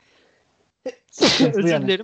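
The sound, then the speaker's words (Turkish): A single quick, sharp sneeze bursts out, followed a moment later by a person speaking a short phrase. “Çok yaşa.”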